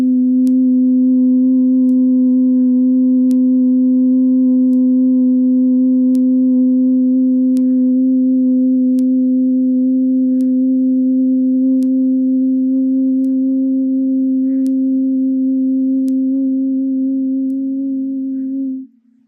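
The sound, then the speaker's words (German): A steady, low vocal hum, bhramari bee breath, held on one pitch for nearly twenty seconds with a buzzing, resonant tone, then fading out at the end. No talking. “Und spüre den Wirkungen von Brahmari der Biene nach.”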